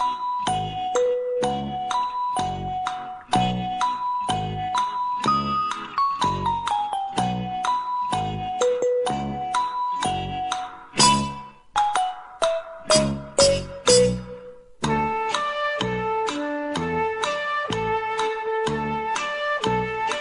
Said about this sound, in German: Und währenddessen hört ihr eine kurze Melodie.